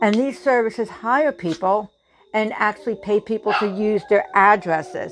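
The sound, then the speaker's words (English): Dogs bark in the background, intermittent, while a person talks steadily over them almost the whole time. “And again, I am so sorry about the dogs, but whenever I choose to put out important information, it seems like something gets in my way.”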